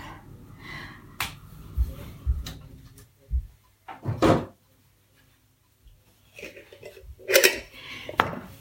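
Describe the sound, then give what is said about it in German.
Glass and dishes clink and knock in a string of sharp, irregular taps and clatters as a fresh glass jar is taken out in a kitchen for sourdough starter, some louder bursts standing out, with no one talking. “Ich habe hier ein frisches Glas.”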